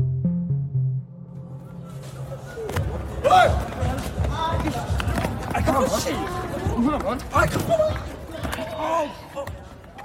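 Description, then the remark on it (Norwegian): A chaotic scuffle caught on a phone video recording: after a brief low hum, sudden thuds and impacts break out as three boys throw a friend down onto a small steel fence, amid several excited, overlapping voices shouting, loud and rough throughout. “Det du hører nå er en video som viser tre gutter som slenger en av kompisene til Daniel ned på et lite stålgjerde.”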